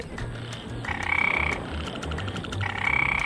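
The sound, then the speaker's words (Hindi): A chorus of frogs croaking continuously as the rain starts in the rainy season, with rapid pulsing calls and higher trilling bursts that swell and fade in waves, layered over a low, steady background hum. “जी हाँ बारिश शुरू हुई नहीं कि टर टर टर टर टर टर टर टर टर”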